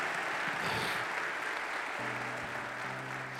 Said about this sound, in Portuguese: Dê um aplauso ao Senhor